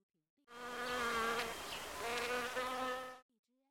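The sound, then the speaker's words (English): A bee buzzes steadily for about three seconds, a dense harmonic drone that wavers slightly in pitch before cutting off abruptly. No voices are present. “A bee does not like to see Lee in the tree.”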